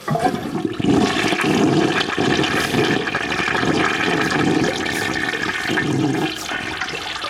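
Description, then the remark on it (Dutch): A toilet flushes, a loud sustained rush and gurgle of water that swirls steadily for several seconds before easing slightly toward the end. No one speaks. “Een doorspoelend toilet, ja.”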